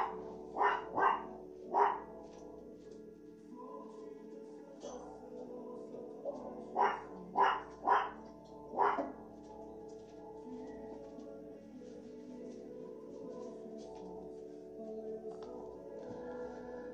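Dogs at a home bark in two clusters of sharp, loud barks, four near the start and four more a few seconds later, then a steady low hum continues with no further barking.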